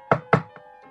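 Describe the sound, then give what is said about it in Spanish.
Two heavy knocks on a wooden door land in quick succession, followed by two much softer, fainter raps, with no voices. “para entender la quinta sinfonía es el destino llamando a la puerta. Así llama el destino a la puerta de Beethoven.”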